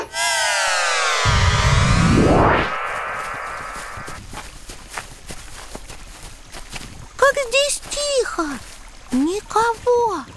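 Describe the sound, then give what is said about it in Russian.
After a sweeping electronic whoosh, the water of a narrow branch of the Volga River babbles softly at its mouth by the Caspian Sea, with reeds rustling and splashy crackles, while repeated chirping bird calls ring out near the end. “Только вода журчит и камыши шуршат Река здесь совсем не широкая а, Это потому, что она разделилась на несколько рукавов”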